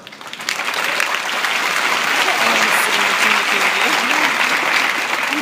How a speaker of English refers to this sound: so thank you to him, and thank you to everyone who put this together. They deserve a big round of applause.